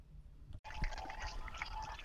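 Dense, continuous crowd noise from a marathon finish stretch, recorded over the last 300–400 meters of the route, with runners of the 1:40 pace group and spectators lining the stretch; a steady wash of cheering and clamour after a brief cut near the start. No single voice stands out.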